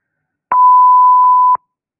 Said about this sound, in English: Okay, what's going on? Beeping? Hmm. Are they having technical problems like I do?